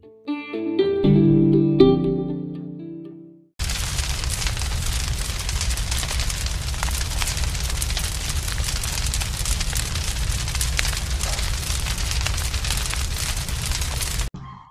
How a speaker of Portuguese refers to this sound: Esse é um som de madeira queimando. Foi extraído de um canal do YouTube cujo subtítulo era Música para Relaxar.